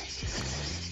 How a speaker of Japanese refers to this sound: ということで、今、セミめちゃくちゃ鳴いてますね。